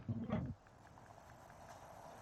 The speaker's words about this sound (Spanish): No hay música, hay lluvia. Por eso, porque es un juego relajante,